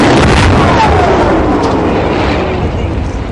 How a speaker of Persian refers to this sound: این دیگه چی بود؟ نه ترس توپخونه خودیه پس از همین فاصله هم میتونه بزنه؟ این که چیزی نیست تا چهار یا پنج کیلومتر میزنن ما که همش دو کیلومتر با خط فاصله داریم